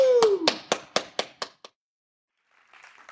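A short run of about seven sharp, evenly spaced claps from an audience welcoming someone onto the stage. The claps quickly fade, opening alongside a falling vocal whoop, followed by near silence and a faint hiss.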